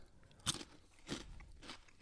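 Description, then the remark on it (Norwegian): Crunching of crisp, puffy chili cheese puffs being chewed, with a sharp bite followed by several softer, irregular crunches over two seconds, no talking. “Trenger ikke tygge etter mikken.”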